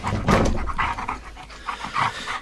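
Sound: dog panting excitedly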